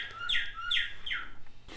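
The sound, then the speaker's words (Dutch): A bird call rings out from a chiming bird clock, three bright, descending squawk-like notes in a quick, even rhythm, clear with no talking over it. “Een vogelklok”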